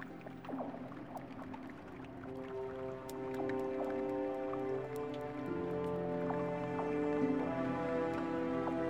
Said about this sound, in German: Um den Angriffen der Paleo-Raubvögel zu entgehen, floh sie zu Fuß in die Höhle der weichen Kristalle, die ständig ihre Form ändern und dabei ein endloses Murmeln von rieselndem Wasser von sich geben.